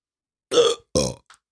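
Two loud burps into a microphone in quick succession, each a throaty, rumbling belch lasting a few tenths of a second, followed by a tiny faint click, with silence around them.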